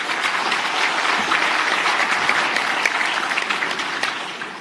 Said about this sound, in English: Congress, it's a great honor for us to welcome uh, the honorable minister Thoko Didiza. Let's give her a great round of applause.